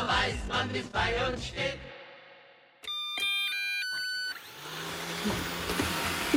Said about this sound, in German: Wir probieren hier jetzt gerade im Studio etwas aus, was ich bei mir zu Hause eigentlich schon länger ausprobieren wollte. Was passiert, wenn man zwei von diesen Staubsaugerrobotern aufeinander loslässt?